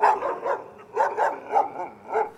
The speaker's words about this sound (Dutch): Maar Ruivenkamp komt niet snel genoeg weg en wordt door de waakhond in zijn kladder gegrepen. Eerst bij zijn kuit, later hapt het beest naar zijn keel.